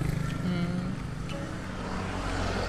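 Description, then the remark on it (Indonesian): Steady roadside traffic rumble at a street-side coffee stall, with engines of motorcycles and cars droning continuously and shifting in pitch as vehicles pass, filling the whole stretch at moderate loudness. “uh, sorry nih kalau kayak suaranya banyak banyak apa suara motor suara mobil ya namanya juga lagi pinggir jalan ya enggak ya”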